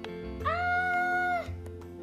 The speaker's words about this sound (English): came out a high pitched shriek that pierced my e- eardrums and rattled my eyeglasses. I've never heard such a high squeak, Thea said